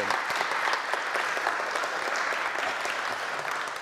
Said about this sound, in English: There we go. Round of applause for St Bernard's and Prescot pupils,